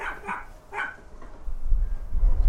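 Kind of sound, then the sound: animal, small dog barking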